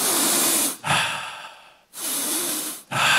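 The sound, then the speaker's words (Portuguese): A voice imitates a demon's loud, harsh sniffing snorts: two long noisy inhales each followed by a rougher exhale, forceful, with no talking. “Essas fungadas que o demônio fez naquela hora.”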